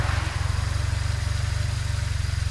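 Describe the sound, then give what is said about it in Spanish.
A motorcycle engine idles, a steady, throbbing low rumble with a quick regular pulse that holds unchanged throughout, with no voices; one of a woman's motorcycles in Zamora, for a ride to the Duero river a couple of kilometres away. “me muestra el taller en el que pasa buena parte del tiempo que está en Zamora y me invita a acompañarla en una de sus motos hasta el río Duero, que apenas está a un par de kilómetros.”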